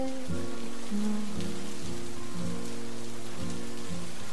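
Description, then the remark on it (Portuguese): Steady rain patters down in a soft, continuous hiss, with gentle sustained musical tones drifting underneath. No one speaks. “No meio da mesma chuva que cai sobre todos nós.”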